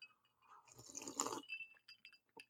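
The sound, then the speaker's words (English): Quiet clinks of a Jack Daniels glass with brief bright ringing, mixed with soft slurping sips of Gentleman Jack whiskey and small mouth noises, and no one speaking. “Um, Gentleman Jack, look at that. Even in a Jack Daniels glass.”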